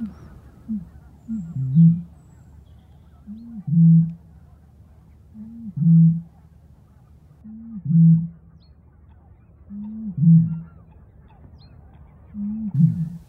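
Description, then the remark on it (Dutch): A Eurasian bittern's booming song: six deep, hollow booms at steady intervals of about two seconds, each low and resonant over quiet background. “gaan we nu nog even één keer luisteren naar de zang van de roerdomp.”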